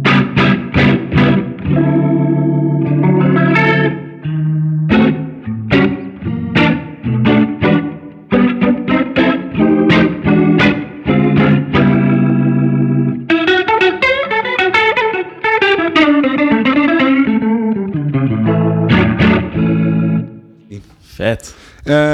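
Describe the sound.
An electric guitar played through a Neo Instruments Minivent rotary speaker simulator pedal, whose speed is set by a control box on top. Choppy strummed chords mix with a run of single notes, all carrying a swirling, warbling modulation that makes the tone shimmer and waver.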